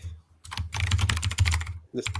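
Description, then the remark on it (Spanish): Rapid typing on a computer keyboard, a dense burst of crisp key clicks lasting over a second, then a pause and a few more keystrokes. No one speaks. “Perdón, voy a escribir por teclado rápido.”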